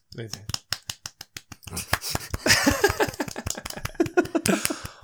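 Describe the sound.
A small group claps, sharp uneven claps spread across the whole stretch, joined midway by voices and laughter before the clapping thins out.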